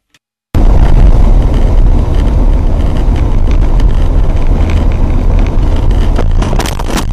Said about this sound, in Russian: Тут уж получилось слишком лихо, а потому что машина, которая нарушала, в итоге врезалась в этого воспитателя и перевернулась и улетела достаточно далеко.